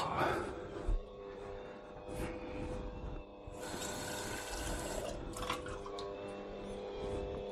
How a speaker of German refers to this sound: bisschen Wasser geben wir schon mal mit rein, damit es hier anfangen kann, sich zu vermischen. Dann kann ich es auch höher stellen.